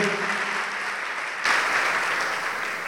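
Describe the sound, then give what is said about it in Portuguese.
An audience claps in the name of Jesus, steadily, in a dense, continuous wash of applause that swells a little louder about halfway through, with no voices standing out. “Isso, venha, vamos aplaudir mais ao nome de Jesus.”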